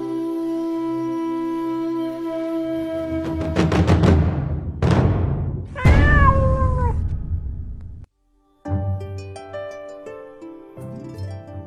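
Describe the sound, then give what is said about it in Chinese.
A domestic cat meows loudly a few times, its cries rising and then sliding down in pitch, with no one talking and a short silence near the end. “你个人养猫的时候一定要闹清楚这个猫啊，对，猫对你有信任感是很难的，它很警觉啊，它不像狗啊。”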